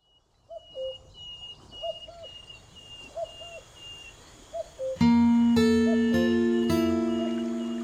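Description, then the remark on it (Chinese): Birds call in a quiet outdoor stillness, short soft cooing notes repeating every second or so over a faint high trill, until sustained music swells in and takes over. “在下面这首歌里，你会听到很多的声音，有河流，有小鸟，还有草房。”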